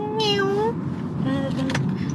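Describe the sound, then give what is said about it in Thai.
A black cat outside a window meows twice, a long drawn-out rising meow followed by a shorter, softer one, over a steady low background hum. “ก็เห็นเป็นแมวร่างดำๆอยู่ตรงนอกหน้าต่าง แล้วก็มองอยู่เฉยตรงนั้นเอ๊ะอะไรแมวทำไมถึงขึ้นมาเหรอ แล้วก็เปิดหน้าต่าง เจ้าคงหิวสินะ เดี๋ยวฉันจะหาอะไรมาให้เจ้ากินก็ได้นะแมว”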